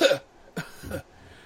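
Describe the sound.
A person acts out a short fit of coughing for the character Annie, three quick, raspy bursts, the first loudest, then quiet. No words are spoken.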